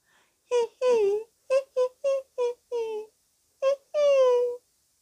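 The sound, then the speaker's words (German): Bali softly squeaks in a string of about eight high-pitched whimpers, short and tremulous, with some drawn out into sliding whines, as if crying out of fear, with brief pauses between them. “Da fing Bali an, leise zu, zu quietschen, so als würde er weinen.”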